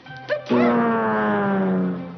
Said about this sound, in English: Well, my goodness, Scraps is a boy dog, isn't he?